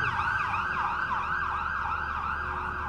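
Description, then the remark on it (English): A loud ambulance siren wails in rapid, rising-and-falling cycles without pause on a street in Times Square, New York City, with a low traffic rumble beneath it and no one talking. “we've got a an ambulance going Hopefully, they're going to get to where they got to get to pretty fast because, you know, it's really hard to drive in New York City.”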